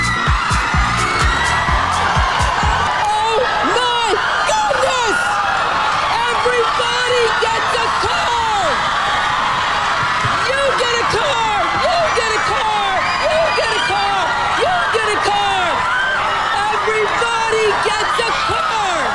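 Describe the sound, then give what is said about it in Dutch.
A studio audience of 276 people on Oprah Winfrey's talk show screams and cheers nonstop after opening boxes holding keys to brand-new Pontiac cars, a dense, loud wall of many excited voices with high shrieks and whoops rising throughout. “En alle 276 eh, mensen in het publiek rijden naar huis met een gloednieuwe Pontiac Euforie in de studio.”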